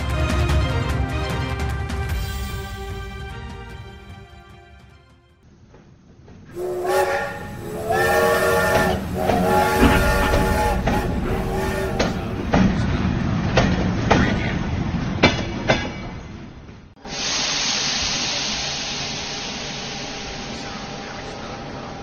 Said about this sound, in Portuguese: Aqui em Bucareste, na Romênia, faz 12 graus. Hoje, 28 de maio, acaba de chegar o trem de Paris aqui na Gara Tarkovisti, belíssima estação de trem reconstruída depois da Segunda Guerra Mundial.